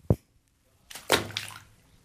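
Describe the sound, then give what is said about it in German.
A dull low knock, then after a short pause a burst of splashing in bathtub water as a body part is slapped into it, one or two quick slaps followed by sloshing that fades out. No one speaks. “Also ich, ich, ich, ich, ich, ich, ich höre nichts platschen, Du kannst du mal das Glied ins Wasser klatschen, schnell.”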